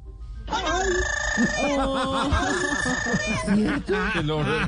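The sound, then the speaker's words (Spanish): A pet parrot squawks and chatters, loud and nearly nonstop, with shrill rising and falling calls packed together over several seconds. “Hoy tengo el lorito.”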